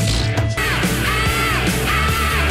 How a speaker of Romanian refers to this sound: Doamne, ce țipă ăștia!